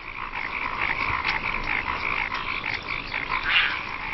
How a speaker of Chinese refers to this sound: 夜幕降临。古老的仪式开始了。现在正是交配的季节，水田中花生一片，雄蛙开始争相鸣叫，以吸引雌蛙的注意。